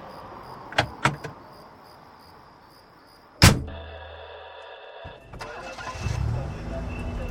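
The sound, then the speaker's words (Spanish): A car's back door is opened for a passenger in the early morning hours, with a few sharp latch clicks, followed by a heavy thud, then a steady hum and an engine rumbling to life. “¿Me puede abrir la puerta de atrás, por favor?”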